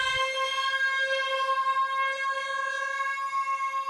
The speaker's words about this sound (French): Le 6 juin, à 10h du matin, les sirènes sonnent et tout le monde s'arrête pour une minute de silence.